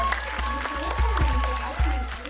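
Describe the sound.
An audience claps, with scattered, uneven hand claps running through the whole couple of seconds over a steady low hum and some faint murmuring voices.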